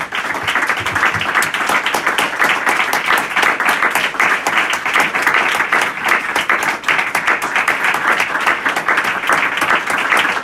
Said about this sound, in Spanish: Le damos un aplauso al Señor Jesús, hermanos.